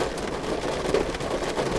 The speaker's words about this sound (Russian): Какая-то непогода и какая-то... какие-то ливневые дожди.